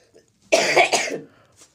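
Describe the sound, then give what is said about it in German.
A single loud, wet-sounding productive cough with two quick rasping bursts, chesty and phlegmy, followed by a faint breath. “Das ist produktiv, oder?”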